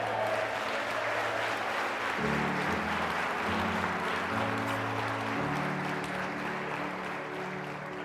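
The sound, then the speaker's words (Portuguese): A church audience claps steadily and evenly in praise of Jesus, the dense applause rolling on over sustained low keyboard or organ chords that change every couple of seconds. “Aleluia, aplauda Ele.”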